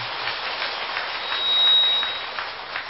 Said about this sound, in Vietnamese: xin đầu tràng chúng ta cho một tràng pháo tay